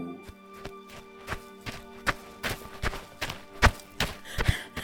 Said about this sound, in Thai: อะไรของแกเนี่ย วิ่งกระหืดกระหอบเสียงดังมาตั้งแต่หน้าโรงเรียนแน่เวอร์น่ะ